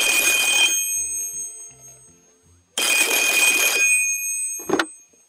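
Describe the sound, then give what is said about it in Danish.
A telephone rings twice in long, bright electronic bursts separated by a pause, loud, followed by a brief clatter as if the receiver is picked up. “Men det er der heller ikke tid til, for telefonen den ringer.”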